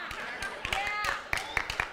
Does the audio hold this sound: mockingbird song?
no